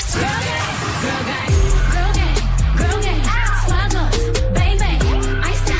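An R&B song plays loudly, a smooth sung vocal gliding over a heavy bass line that drops in after a short, thinner intro and then holds a steady groove.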